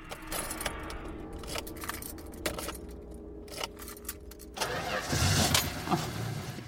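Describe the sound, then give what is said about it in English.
Car keys jingle and scrape in several sharp clicks and rattles as shaking hands take several tries to get them into the ignition. Then the car engine cranks and turns over into a steady rumble that fills the last couple of seconds. “It took several tries before I could get the keys into the ignition.”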